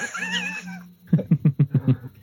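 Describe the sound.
A person imitates a cat, giving a drawn-out, wavering meow, then a quick run of six short, punchy vocal bursts in a steady rhythm.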